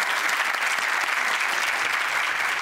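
Steady, dense applause from an audience, many hands clapping at once in a continuous bright patter that holds at an even, fairly loud level throughout.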